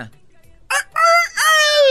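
bird, rooster crowing alarm

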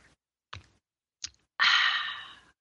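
food or drink, sipping hot tea

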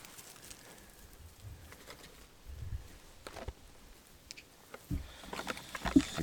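bird, pigeon cooing

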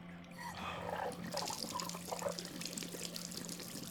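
household object, water draining

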